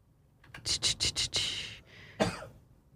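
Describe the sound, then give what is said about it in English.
A rapid fit of coughing from allergies: about five sharp, harsh coughs in quick succession, then a longer raspy cough and one more burst after a brief pause, fairly loud with no talking. “excuse me if you hear me uh, dying in the background. No, that's right. We all have allergies.”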